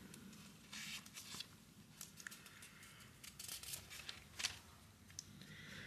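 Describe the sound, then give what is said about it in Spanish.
Thin, still partly stuck-together Bible pages peel apart and turn in a series of crisp rustles and faint crinkles, with short bursts coming irregularly over a quiet background as someone looks up Matthew chapter 24, verse 30. No one speaks. “Están las hojas todavía medias pegaditas de la Biblia y eso hace que por ahí se complica un poquito, pero ya estamos acá.”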